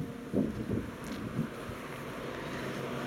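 Steady outdoor wind rushes and rumbles against the microphone on a street in Aarhus, outside a front door, on a wet and windy October day, with a few louder gusts early on, then a constant blustery roar. No one speaks.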